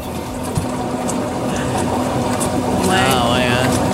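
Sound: dishwasher running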